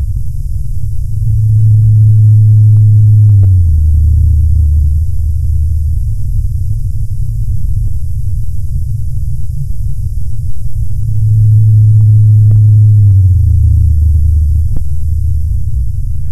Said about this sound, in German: Auch die tiefen Stimmen der Blauwale konnten die Forscher im Winter noch hören. Bislang war man davon ausgegangen, dass die größten Tiere der Erde in dieser Zeit wärmere Gewässer aufsuchen.